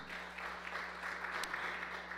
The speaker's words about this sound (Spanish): Dele otro aplauso fuerte a Dios.